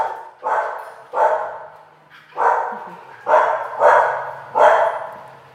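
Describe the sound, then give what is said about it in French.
Two dogs barking in a shelter kennel of large boxes, six loud, fairly evenly spaced barks over a few seconds, with no one talking. “on peut appeler ça comme ça, avec des chiens. En l'occurrence, ces deux-là.”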